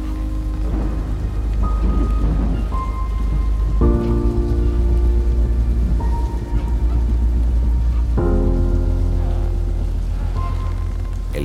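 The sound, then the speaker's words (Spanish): Heavy rain pours steadily throughout, with deep thunder rumbling low beneath it and sustained droning tones shifting pitch every few seconds. No voices are heard. “viento quejumbroso, los espectros malignos y la tempestad siguieron con la misma rudeza por varias horas.”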